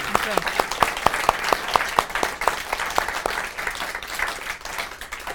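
An audience breaks into applause, a dense wash of many hands clapping steadily, with a few sharp individual claps standing out early before the sound thins slightly toward the end.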